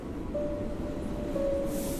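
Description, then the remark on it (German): A train rumbles steadily, with a sustained high metallic tone from braking wheels and a faint hiss of air near the end, as the train stops at a railway station. “Schnell schnappst du deinen Rucksack und läufst aus dem Zug.”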